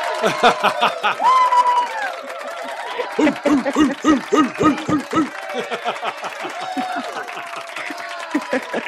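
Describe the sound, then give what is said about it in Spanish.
An applause sound effect: a crowd applauding steadily for several seconds, with overlapping cheering voices and bursts of laughter mixed in, loud throughout. “No Mira, tira, tira, tira un aplauso.”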